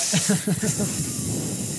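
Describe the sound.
A voice imitates a snake's hiss: a steady, breathy, fairly loud hiss held for about two seconds, with a few brief voiced sounds at the start.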